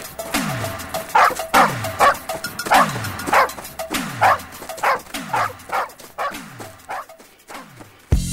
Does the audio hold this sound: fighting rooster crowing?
no